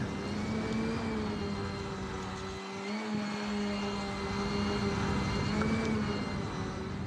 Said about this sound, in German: Die Drohne muss senkrecht landen und bietet dem Wind viel Angriffsfläche. Auch die Landung erfolgt automatisch. Die Drohne versucht, mit den Böen klarzukommen.